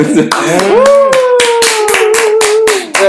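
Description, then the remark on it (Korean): Steady rhythmic hand clapping, about three to four claps per second, loud, runs through the whole moment while a sustained vocal line carries over the beat. “네, 어, 박수칠로 들어갔는데.”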